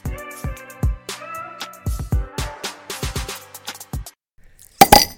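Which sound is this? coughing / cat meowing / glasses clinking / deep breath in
glasses clinking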